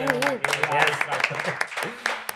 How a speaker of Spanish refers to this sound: Así da gusto llegar a un programa y que te aplaudan. al empezar, no solo al terminar.